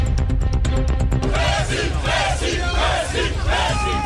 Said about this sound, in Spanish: Ya lo escuchan, cientos de hinchas del Paris Saint-Germain están esperando ver pasar a Lionel Messi, cuyo avión aterrizó hace pocos minutos en el aeropuerto Le Bourget, al norte de París.